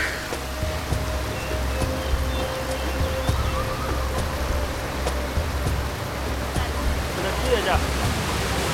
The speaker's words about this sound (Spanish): Estamos aquí al lado de una primera cascada, ¿cómo se llama? Y según entiendo, eh, ustedes invitan a la gente a brincarse de aquí al, pozo que tenemos abajo, ¿no es cierto?